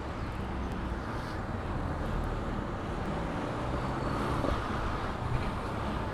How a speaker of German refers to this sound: Der Wind geht schon recht gut, ich hoffe. Äh, ich hoffe mal, das ist mit dem Ton okay so.